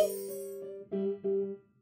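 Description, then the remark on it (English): Wind chimes tinkle in a short run of about five ringing strikes, each bright metallic tone sustaining and overlapping the next, heard clear with no voices. “We don't have wind chimes, and the front door isn't open. Where on earth did that come?”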